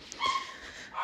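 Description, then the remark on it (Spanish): The speaker's dogs bark in the background, with a quick yip followed by a sustained, whining bark that fades out, fairly faint and heard on its own without talking. “Y bueno, no sé si escuchan a mis perros atrás, pero nada.”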